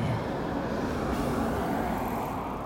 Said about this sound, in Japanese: 道路が近くなってきましたね結構ねあの国道1号線があの実は通ってましてん多分1号だと思うんですけれどもかなり交通量が激しいですね